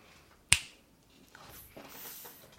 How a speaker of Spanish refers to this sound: hace el Chasquido